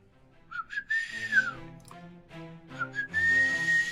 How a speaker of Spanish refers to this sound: Como que últimamente no, no he estado en sintonía con ese silbido chido. A ver.